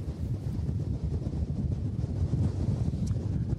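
Strong autumn storm wind gusts of up to 100 km/h on the beach at Wimereux, Pas-de-Calais, France, buffet the microphone in a loud, continuous low roar, with rumbling surges rising and falling throughout and no voices heard.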